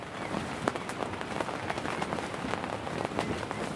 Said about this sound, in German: Erst tiefschwarze Wolken am Himmel treiben uns zurück zum Campingplatz. Wir krabbeln ins Zelt und lauschen dem Konzert der Regentropfen.